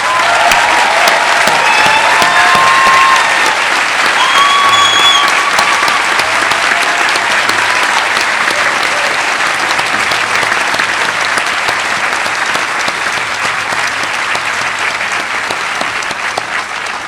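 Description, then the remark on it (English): A large audience at a graduation ceremony in a tent gives the graduates a final round of applause for about seventeen seconds, a dense, even wash of clapping, with a few high whistles cutting through in the first several seconds. “And let's give all our graduates one last round of applause.”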